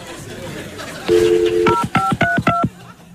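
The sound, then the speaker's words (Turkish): A steady dial tone gives way to four quick, crisp telephone keypad beeps in an even rhythm as a number is dialed again to call someone back, while muffled voices murmur faintly in the background. “ben bir daha arayayım.”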